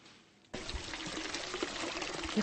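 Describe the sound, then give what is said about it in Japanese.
Spring water at a site in Shinshu gushes out in a steady, forceful stream as if pumped, a broad hissing splash that starts abruptly after a brief quiet moment and continues loudly without pause, the water flowing on to the fields. “こんなに勢いよく流れてるのあのなんて言うんでしょうねこううん、ポンプ状態で出してくれてるんですよ。”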